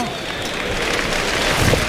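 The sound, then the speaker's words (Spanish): A bullring crowd at a bullfight gives an ovation for the bull Zambombo as it is dragged out: dense, steady applause forms a continuous hiss-like wash throughout, swelling slightly toward the end, with indistinct voices mixed in. “Y se ha llevado una ovación el zambombo, oye.”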